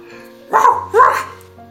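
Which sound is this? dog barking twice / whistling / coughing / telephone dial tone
dog barking twice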